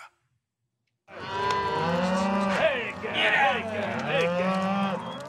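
Hundreds of cattle, mostly mothers with new calves, mooing at once as they are moved on the Green River Drift cattle drive in Wyoming, just after dawn in late June: a dense, overlapping chorus of low bellows that starts abruptly and continues loudly and steadily.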